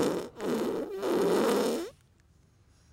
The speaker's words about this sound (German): Es ist immer, wenn ich, immer, wenn ich was Cooles sage, was ich mache, dann kommt der Furzbutton.